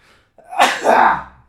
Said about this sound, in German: Ich gleich niesen, ey. Das wird laut.